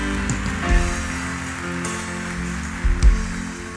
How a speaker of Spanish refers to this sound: ¿Cuántos dicen amén a eso? Denle un aplauso al Señor por esto.